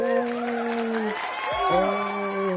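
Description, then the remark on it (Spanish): A short burst of canned applause with a crowd cheering and whooping, steady and fairly loud for under three seconds, with rising and falling shouted voices over the clapping. “Así que nuevamente aplausos grabados para esto.”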